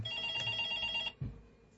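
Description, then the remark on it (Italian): A telephone rings for an incoming call with a steady electronic trill for about a second, cutting off abruptly, followed by a soft low thump and fading background noise. “ma intanto prendiamo questa telefonata.”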